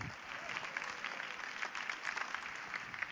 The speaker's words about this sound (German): Also erstmal vielen Dank und viel Applaus den beiden.